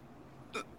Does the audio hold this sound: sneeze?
yes